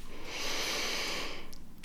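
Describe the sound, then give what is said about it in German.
A single deep, airy breath taken consciously by a person sitting with feet on the floor, a steady hiss lasting over a second before fading out, with no talking. “Bewussten tiefen Atemzug nehmen und einfach fließen lassen.”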